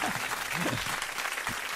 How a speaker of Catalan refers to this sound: Moltes gràcies per aquests aplaudiments. Públic.